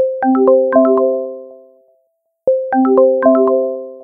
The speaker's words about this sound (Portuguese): Esse aqui é o do timer do HomePod.